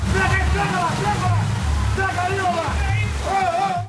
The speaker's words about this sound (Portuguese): No meio da enxurrada, o susto na Rocinha.